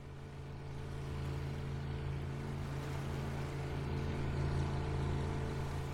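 A boat motor drones steadily as the boat heads out to sea to look for penguins, a low humming engine with a constant tone, water washing faintly underneath as the craft keeps moving.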